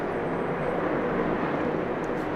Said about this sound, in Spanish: Ya, perdón, es que vivo en una colonia que justamente es la ruta de los aviones.